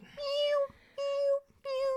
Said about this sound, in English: I mean, that's cute for like a scene. I can't imagine being in a room constantly with oh, those yeah. goddamn cats meowing.